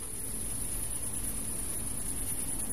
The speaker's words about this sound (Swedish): Det är vanligt att en bidrottning tutar precis innan den kläcks. Kanske för att tillkalla andra bin i kupan för att få hjälp att komma ut.